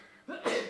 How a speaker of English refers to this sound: No, bless, you, mate, bless you, mate.